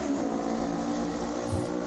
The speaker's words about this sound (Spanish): que ha pasado una moto.